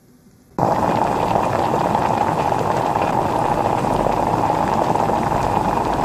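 Chopped chicken being stirred into soup with a spoon over slightly raised heat to separate the pieces: after a brief quiet moment, a loud, steady bubbling, crackling hiss begins and continues without a break. Nobody speaks.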